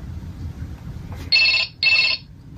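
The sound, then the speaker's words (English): A talking doll's toy phone rings with two short, bright electronic trills, separated by a brief pause, over a low background rumble. “She's still she's still ringing.”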